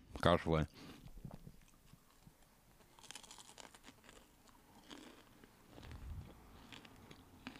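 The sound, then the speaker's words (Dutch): Crunchy chewing in ASMR style, a loud bite at the start followed by wet crunching and mouth noises, with scattered brief crackles and munching throughout. “Hoor die crunch.”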